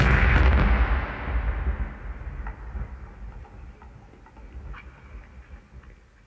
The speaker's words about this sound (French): À peine avaient-ils atteint le parking qu'une violente explosion résonna.